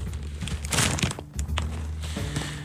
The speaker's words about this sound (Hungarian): úgy kezdődik, hogy, hogy nem szól bele, hanem csak ilyen lap, csak lap friss, friss sajtótermék ropogást lehet hallani így.